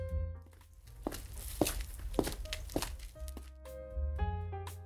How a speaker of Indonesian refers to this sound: Sobat, dari percakapan singkat tersebut, bila kalian dengarkan dan bayangkan dengan seksama, kalian pasti mendengar suara langkah kaki.